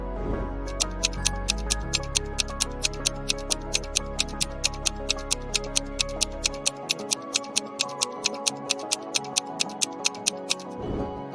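Steady, evenly spaced ticks of a 7-second countdown clock, about four per second, crisp, playing over a low droning musical bed that drops out partway through.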